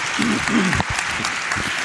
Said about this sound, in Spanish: Pido un aplauso para él, se va a quedar aquí. gracias, gracias.